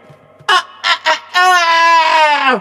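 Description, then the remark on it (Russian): A man's voice, turned toward the southwest, mimics a rooster's crow: three short, sharp syllables followed by a long, loud, drawn-out note that holds steady and then drops in pitch at the end. “Я повернулся в сторону юго-запада, вспомнил равнодушных к моей музыке соотечественников и прокукарекал им.”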